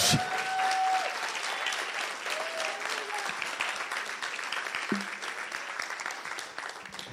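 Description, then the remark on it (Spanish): An audience applauds loudly in a dense, steady wash of clapping that holds for about seven seconds, with a few brief whistles or cheers rising above it early on. “Si tú lo crees, dale un aplauso fuerte a Jesús.”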